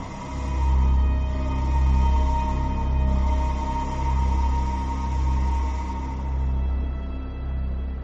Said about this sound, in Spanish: Me quedé sentado en el coche, escuchando. No distinguía el faro ni la luz de la bahía de la soledad. Solo oía la sirena. La sirena. La sirena sonaba igual que la llamada del monstruo.